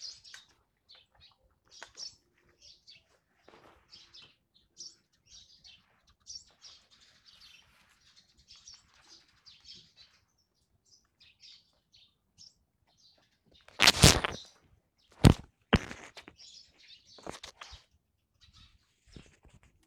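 Wild birds calling at dawn, around 6 a.m. at the Summer Palace during the National Day holiday: faint, scattered high chirps and tweets overlap throughout, then a few loud, sharp bursts stand out briefly near the end before the quieter calls resume.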